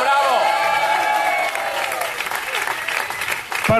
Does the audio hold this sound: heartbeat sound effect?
no